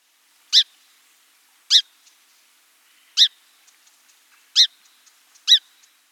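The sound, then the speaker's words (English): Five short, sharp song sparrow chip calls ring out at uneven intervals, each a crisp, clear note standing alone against a quiet background. “The most frequent call is a warm, round chip.”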